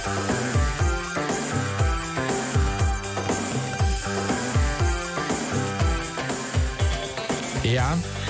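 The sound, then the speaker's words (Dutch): A radio station's emergency filler tape, started automatically from another location after more than 10 seconds of silence on air, plays loud and continuous music with a steady pounding bass beat under bright, dense layered instruments, and no talking over it. “Ja, dit, is, ehm, dit is wat je nu hoort, is de noodband.”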